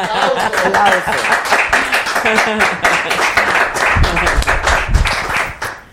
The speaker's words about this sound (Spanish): Bien. Bien. Aplauso.